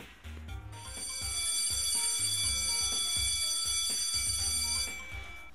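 A school bell rings in class 6B for a lesson, loudly and continuously for about four seconds, a harsh, buzzy metallic clang with bright overtones, then cuts off, leaving faint low rumbling underneath.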